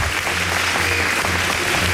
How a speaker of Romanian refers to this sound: Și, uh, în ultimul rând, uh, mai băgăm niște aplauze retroactiv pentru mare nostru uh,